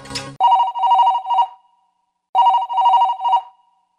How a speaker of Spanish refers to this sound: Acudimos al despacho del diputado y justo cuando iba a atendernos, sonó su teléfono.